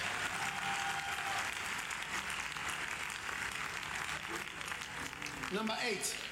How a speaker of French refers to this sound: Oh, Donnez une acclamation au Seigneur.